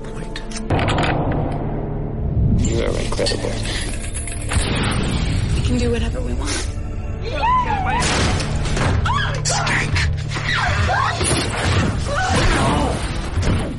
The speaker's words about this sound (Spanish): bueno, pues esto que estamos escuchando es el tráiler original de la película de 2006 Cities Road.